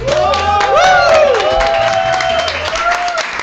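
An audience at a weekly news-quiz panel show applauds a panelist, steadily, with dense, continuous clapping, while cheers and rising, wavering whoops or whistles ring out over the top, loud and sustained throughout.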